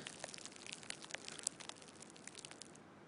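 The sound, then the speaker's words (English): A small ball of Saran plastic wrap is released and slowly unfurls, giving a soft, steady stream of fine crackles and tiny pops, used to imitate a cigarette burning. It is quiet, with no talking. “The burning of a cigarette up close, it actually sounds a lot more authentic if you take a small saran wrap ball and release it.”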